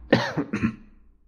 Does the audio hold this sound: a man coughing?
yes